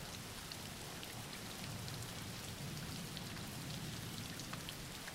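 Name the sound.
background rain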